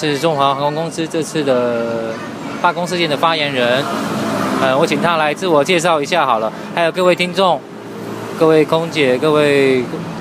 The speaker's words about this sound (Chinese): 请注意，我们是在路边录的。声音可能不是很好，请多多见谅。